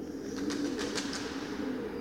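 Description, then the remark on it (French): Pigeons living in a crevice in the rock coo in a low, continuous murmur while a series of soft, rapid wing flaps flutter through, the sounds faintly echoing. “seulement vivent quelques pigeons. Ouais. On les entend faire du bruit d'ailleurs.”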